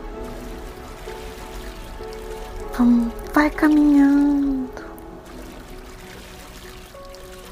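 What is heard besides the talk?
waterfall rushing water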